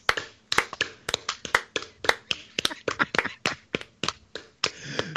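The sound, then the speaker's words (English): Hand claps, sharp and snappy, about twenty in quick, uneven succession, loud and dry with no voices, as if a slow clap has picked up pace, trailing into softer rustling at the end. “Yeah, you yeah you start a slow clap.”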